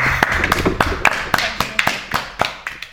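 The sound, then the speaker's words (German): Applause from a small group for the two winners of a weight-guessing game, with distinct sharp claps at an uneven, fairly quick rhythm rather than a dense roar, over a soft background murmur. “Und das hier ist euer Applaus.”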